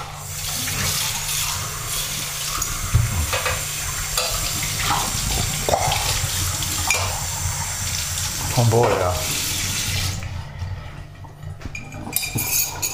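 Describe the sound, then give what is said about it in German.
A carbonated drink fizzes steadily as it is poured, a continuous crackling hiss with small clinks, briefly joined by a few spoken words. “Das ist die Kohlensäure.”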